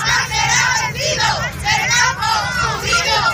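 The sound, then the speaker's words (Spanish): A large crowd of Spanish farmers protests, chanting and shouting loudly and continuously, many voices rising and falling in rhythmic waves over a low rumbling background, as the protest blocks the main roads of Spain. “Y el que vas a escuchar a continuación es el sonido del día, el campo español manifestándose y cortando las principales carreteras de nuestro país.”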